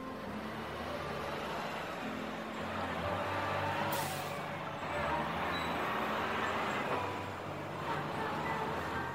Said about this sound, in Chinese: 从清晨睁眼那一刻的睡眼松醒，经过混乱嘈杂的城市公交、地铁。